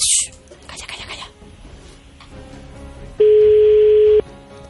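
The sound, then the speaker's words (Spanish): A telephone ringing tone as someone is being called sounds as a single loud, steady beep lasting about a second, preceded by quieter background noise and faint handling sounds. “A ver, estamos llamando, estamos llamando.”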